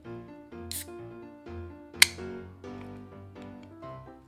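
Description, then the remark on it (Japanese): A single sharp crack as a can of plum wine soda is opened, with a brief fizzy hiss, over steady soft background music and no talking. “えー、今日は暑くなってきたので、えー、さっぱり梅酒の、えー、総割りを飲みながら、あの、話していこうかなと思います。じゃあ開けようかな”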